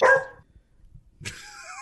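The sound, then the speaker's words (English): A dog barks twice, a short sharp bark followed by a pause and then a longer, whiny bark that bends upward in pitch. No one is talking. “That's what the dog Johnny, would say on the phone.”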